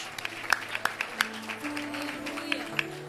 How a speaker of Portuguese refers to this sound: Aplauda Jesus, aplauda. Forte mesmo. Este Jesus é maravilhoso.